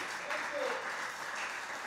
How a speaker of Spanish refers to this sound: Así que esta noche déle otro aplauso al Rey. Aleluya.